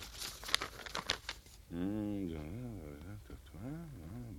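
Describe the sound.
Crisp crinkling and tearing of paper for about a second and a half as a sealed letter is torn open, followed by a voice that begins speaking.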